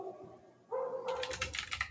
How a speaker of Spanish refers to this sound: Perdón por el teclado.